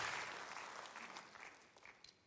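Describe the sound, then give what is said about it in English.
A church audience claps together in a dense, steady wash of applause to appreciate the church's generosity, gradually thinning and fading, with a few scattered louder claps near the end. “Come on, let's just clap our hands, take 30 seconds of my time, and appreciate the generosity that we have shown over the years.”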